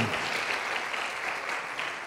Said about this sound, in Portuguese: Uma salva de palmas para eles aqui.